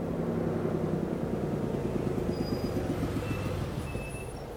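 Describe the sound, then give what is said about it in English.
A bus's heavy engine rumbles steadily, its low drone easing off near the end as the bus carrying kids arrives, pulls up and comes to a stop. No one speaks. “Kids, get out of the bus and relieve yourselves!”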